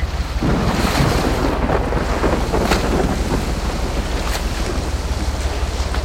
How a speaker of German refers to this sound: Das Schiff bewegt sich an.